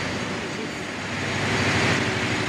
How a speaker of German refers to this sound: Wir gehen jetzt dann durch unsere sogenannte Belüfterstation durch, da ist es sehr laut drin. Also wir werden sehr schnell durchgehen, vielleicht die Ohren zuhalten,